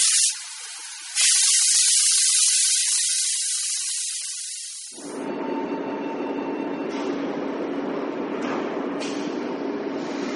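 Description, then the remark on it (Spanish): A hissing burst like released air gives way to a train rumbling steadily along the tracks, a continuous low roar with faint rhythmic clatter, fairly loud, no voices. “El ferrocarril de Sawyer en estas fechas cumple 100 años.”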